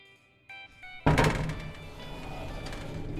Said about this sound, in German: Die Tür schließt sich. Fährt er von alleine wieder los? Ja.